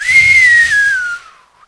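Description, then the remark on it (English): A person whistles one loud, breathy note that holds steady, dips slightly in pitch, and trails off after about a second and a half, with no talking. “Yeah, the, you hear a whistle, you know something was deep.”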